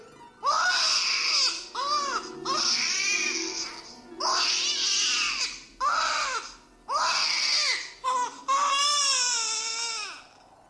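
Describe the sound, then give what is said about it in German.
A baby cries loudly in repeated wailing bursts, about six of them separated by short gasping pauses, the last one stretching into a long, high, strained howl. “Nehmen Sie gefälligst den Schnuller heraus, wenn ich mit Ihnen spreche.”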